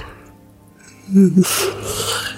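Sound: yawn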